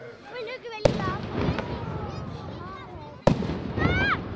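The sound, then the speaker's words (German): Two booming ceremonial salute shots (Böllerschüsse), about two and a half seconds apart, ring out sharply and echo, heard from afar opposite the minster over a bustling festival crowd with several people talking, as children await the dancing Wild Man. “Die Böllerschüsse sind schon von weitem zu hören.”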